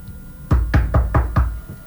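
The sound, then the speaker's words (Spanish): Five firm knocks on a door in quick, even succession, loud with a solid, thudding low end, heard alone against a faint background hum. “Golpean la puerta.”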